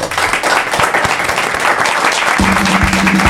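A crowd applauds steadily, many hands clapping in a dense, loud wash of sound with no pauses, a faint low hum running underneath toward the end, as guests are thanked for sharing their experience in animation.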